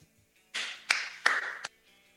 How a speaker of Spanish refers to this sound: ¿Por qué aplaudís? Porque, porque descubrió porque pudo descubrir. Pudo descubrir la verdad. Aplaudimos la verdad.